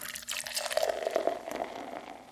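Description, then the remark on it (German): Beer is poured into a glass in a short, steady stream with a fizzy, splashing gurgle that carries a faint rising tone as the glass fills, with no voices. “Dein Bier.”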